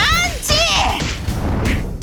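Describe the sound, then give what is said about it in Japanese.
A rapid flurry of loud punching impact effects, a barrage of punches hammered into an evil dinosaur, several hits landing in quick succession, mixed with strained, shouting vocal effort sounds. “バクは激しく打ちつける雨のような連続パンチを悪しき恐竜に思い切り叩き込みました”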